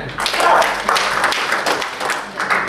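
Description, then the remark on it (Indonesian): Audience applause fills the moment as the audience applauds themselves, a dense, steady wash of many hands clapping at once, loud and sustained without any voices rising above it. “Tepuk tangan untuk kita.”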